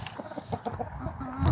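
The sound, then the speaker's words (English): Several chickens cluck in short, overlapping bursts as they are fed layers crumble, a busy irregular chatter with a louder rustle or flurry at the very end. “I'm feeding the chickens.”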